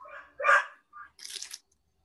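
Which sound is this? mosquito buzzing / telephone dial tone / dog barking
dog barking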